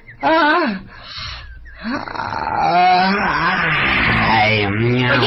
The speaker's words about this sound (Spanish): Eh, eh, uy, hombre, y no hay nada más sabroso que bostezar con todas las de ley.